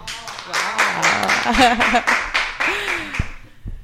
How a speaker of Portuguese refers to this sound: Aê. Que efeito sonoro que nada, gente. Aqui foi palmas ao vivo mesmo. Olha que delícia.